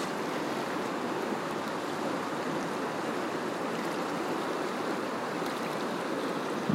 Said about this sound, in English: May the energy of this river wash over you and sink into your own bodies so that it may remember that it too knows how to pivot and stay on course, even as the earth changes.